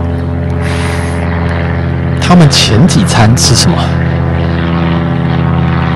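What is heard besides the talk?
airplane passing overhead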